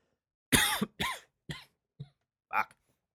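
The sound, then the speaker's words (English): A harsh fit of coughing: two strong hacking coughs in quick succession, then three shorter, weaker coughs trailing off, with brief silences between. “I've been coughing a lot recently.”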